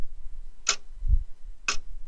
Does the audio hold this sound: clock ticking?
yes